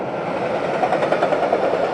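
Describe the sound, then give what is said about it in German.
A freight train rumbles steadily through a railway tunnel that bypasses the Markgräfler villages in Germany, a continuous loud roar of wheels and rattling wagons that holds at an even level throughout, with no voices. “Die, dieser Güterzug würde jetzt durch die Markgräfler Dörfer fahren.”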